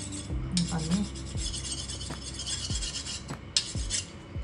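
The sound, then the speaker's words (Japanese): Rice being rinsed and scrubbed by hand, a steady gritty rubbing with repeated gentle strokes and soft knocks every second or so, with no talking. “北海道のお土産でちょっと今研いでます”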